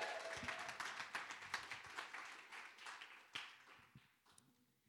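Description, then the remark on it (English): A crowd cheers and claps steadily throughout as someone comes up to give an announcement, a dense patter of many hands with a few sharper slaps standing out, fading slightly toward the end; the applause is fairly soft overall. “Yeah, cheer on.”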